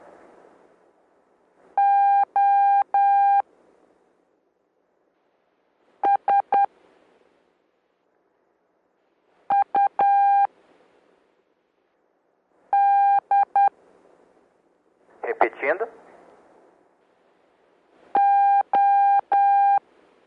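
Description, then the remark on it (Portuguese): Morse code letters sent as a steady, buzzy electronic tone in a four-letter Morse code practice exercise, five separate groups of short and long beeps spaced by silent pauses, with one brief noisy burst between them and no talking. “Aproveitando esse exercício de quatro letras, vocês perceberam que eu tenho transmitir quatro letras de um espaço de tempo.”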